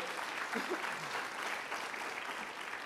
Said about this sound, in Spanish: Apláudele fuerte a Él.